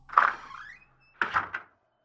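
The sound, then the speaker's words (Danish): A back door swings open as someone steps in through it, with a drawn-out, rising creak, then after a short pause shuts with a cluster of solid knocks and a rattle of the latch. “Så han træder ind af bagdøren og hilser på opvaskeren Majlin, som allerede er mødt ind.”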